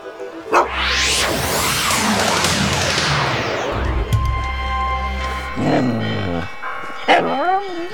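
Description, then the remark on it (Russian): Church bells ring out with sustained, overlapping tones across a busy outdoor street, Nikolskaya Street in Moscow near the Kremlin, layered over steady traffic-like rumble, with brief voices and other street noises near the end. “О, мы снова неподалеку от Кремля В колокола звонят Какая красивая улица Старинные дома и церкви Улица Никольская”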